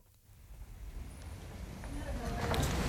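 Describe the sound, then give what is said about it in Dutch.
Footsteps tap along a paved shopping street, the former PC Hoofdstraat in Amsterdam, amid a busy outdoor bustle that slowly grows louder, with indistinct voices and city noise in the background. “Eh, we lopen hier in de voormalige PC Hoofdstraat...”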